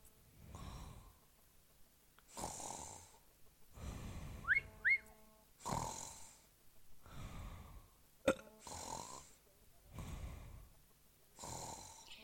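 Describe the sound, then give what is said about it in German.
Steady snoring, about seven rasping breaths in an even rhythm, each a rough low rumble with a hissing exhale, plus a pair of brief high whistling squeaks midway. No one speaks. “bist du wieder wach?”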